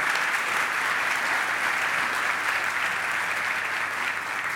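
Sustained audience applause, a dense steady patter of many hands clapping at even loudness for several seconds, with no voices standing out.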